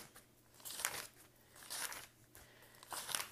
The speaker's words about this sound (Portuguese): e agora eu tô abrindo meu livro que foi onde eu fiz as anotações de ontem do culto, e vou me basear aqui para não perder o raciocínio.